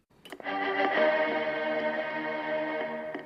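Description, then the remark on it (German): A distorted, effects-heavy instrument plays the famous short-short-short-long four-note symphony motif: a few quick clipped notes, then one long, loud held note ringing out for several seconds with no voices. “die benutzt als Erkennungszeichen eine ganz bestimmte Melodie, nämlich Beethovens Fünfte”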